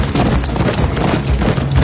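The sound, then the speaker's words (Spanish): A horse gallops at full speed toward armed men at the entrance of the Churubusco film studios, its hoofbeats a loud, rapid, dense drumming of low thuds that continues without a break. “Se colocan en posición y apuntan con sus armas mientras el caballo se dirige a ellos a toda velocidad.”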